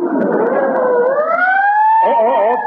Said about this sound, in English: Pardon me. There goes another ambulance.